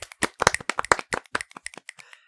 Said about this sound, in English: Round of applause.